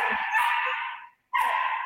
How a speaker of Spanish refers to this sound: Perdón, pero mis perros están locos gritan y gritan y gritan.